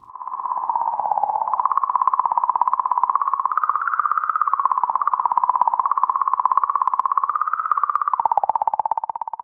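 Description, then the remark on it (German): A steady, wavering electronic tone around a single pitch, rapidly pulsing and warbling with slight rises and dips, continuous and fairly loud, with no voices. These are sonified comet plasma signals made from Rosetta Plasma Consortium data aboard the Rosetta probe. The signals are normally inaudible and were shifted into the audible range by Manuel Senft. “erzeugt aus Daten des Rosetta Plasma Consortium an Bord der Rosetta-Sonde.”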